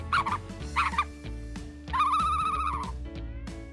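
An ostrich calls three times: two short, reedy chirps followed by a longer, wavering whistle-like cry. The calls are moderately loud over a steady low hum, with no talking.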